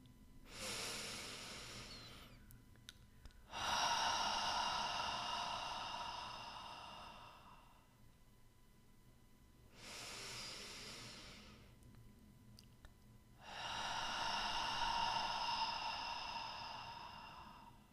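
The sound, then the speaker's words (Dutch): Two slow, deep breaths: each a shorter inhale in through the nose followed by a longer, louder whooshing exhale out through the mouth, with quiet pauses between and no talking. “Adem vervolgens drie keer diep in door je neus en uit door je mond in jouw eigen tempo.”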